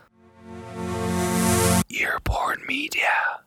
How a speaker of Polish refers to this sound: Być może zauważyliście, że ostatnio przed odcinkami pojawiło się takie logo dźwiękowe